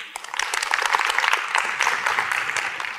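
Steady audience applause, a dense crackle of many hands clapping that holds at a fairly even, moderately loud level throughout, with no voices over it.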